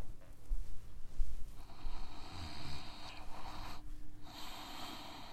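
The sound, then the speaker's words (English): Loud, forceful breathing through the nose as a breathing exercise for the middle and upper lungs, with a run of harsh, snorting breaths repeating in steady succession and no talking. “This breathing is for the middle lungs and the upper lungs.”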